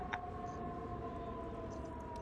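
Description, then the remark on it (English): A siren sound effect holds a steady, wavering tone throughout, fairly faint and set against a constant low rumble of background noise, with no one speaking. “We got the yeah, sirens right? and everything. You like that sound effect there?”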